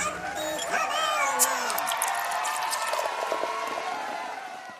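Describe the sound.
A short, busy tavern jingle of about five seconds, loud throughout, with gliding, whining tones and yelps layered over a bustle of voices and clatter, fading slightly at the end.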